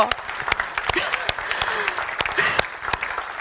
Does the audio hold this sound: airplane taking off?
no